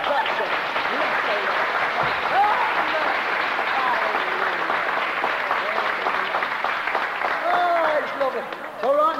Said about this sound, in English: They belong to the King of Kings. They're your brothers. Now give them a clap for coming.